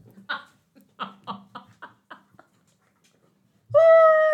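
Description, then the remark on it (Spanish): A dog chews on a squeaky ball, giving a string of short, rhythmic squeaks followed by one loud, sustained squeal, with no talking. “en el medio de la risa silenciosa que tenemos nosotras, Cadona mi perra. comiendo su pelota”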